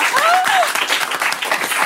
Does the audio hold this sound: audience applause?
yes